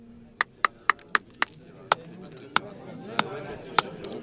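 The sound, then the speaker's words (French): A lemonade seller chops at a block of ice behind his counter with quick, sharp strikes, about a dozen blows coming rapidly at first, then more spaced out, over a faint low background murmur. “Après s'être escrimé sur le morceau de glace derrière son comptoir, le limonadier en verse des éclats dans les verres.”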